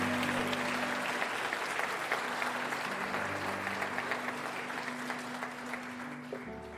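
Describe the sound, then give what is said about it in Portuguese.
An audience claps steadily for several seconds to praise the name of Jesus during an evening church service, a dense, even patter of many hands, while a low sustained keyboard tone hums underneath. “Você pode celebrar essa palavra, você pode adorar Jesus por essa palavra, aplaudir o nome dele nessa noite, exaltar o nome dele.”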